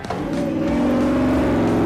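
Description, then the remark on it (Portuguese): A car engine revs hard and accelerates as it is driven through mud, its loud droning tone rising steadily over a couple of seconds, continuous with no voices. “E algumas cenas é, foi eu mesma que dirigi ali, no barro e acelerando.”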